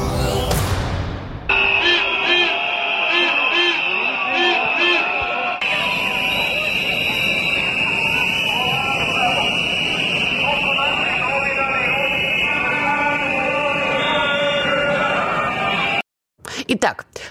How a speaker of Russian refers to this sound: То, что вы слышали, это отголоски и звуки протестов, которые вспыхнули в Белграде вот как раз минувшим вечером и ночью.